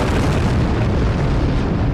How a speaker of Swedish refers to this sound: och då smäller det